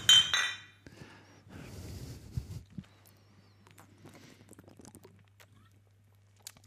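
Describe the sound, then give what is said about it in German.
Glass bottles of Flora Power, a drink tried as an alternative to Club Mate, clink together once in a bright, ringing toast at the start, followed by quieter handling, shuffling and faint tapping sounds. “Und ich hätte gesagt, wir stoßen einfach mal an, oder?”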